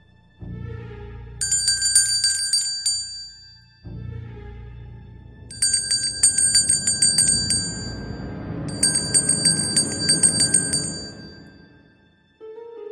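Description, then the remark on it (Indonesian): Bright, jingling bells ring from a house porch at midnight in three shimmering bursts, each a rapid cluster of high metallic tones over a low rumbling bed, with brief pauses between them. “Seperti suara kerincingan, suara dari teras rumah.”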